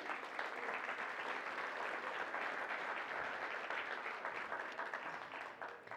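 A crowd applauds steadily, a dense wash of many hands clapping at an even, loud level for several seconds, tapering slightly at the very end.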